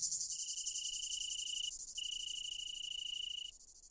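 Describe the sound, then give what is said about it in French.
Italian crickets trill in two long, steady, high-pitched notes broken by a short pause, set against a dense, continuous hiss of other insects. No one speaks. “Prière donc de ne pas confondre ces grillons des bois avec ces cigales européennes et ces grillons d'Italie.”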